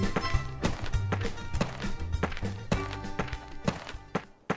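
Steady footsteps of an old man walking past on his way to buy things at a shop, a series of evenly spaced thuds at a brisk pace, clear, with a low tonal hum running underneath and no talking.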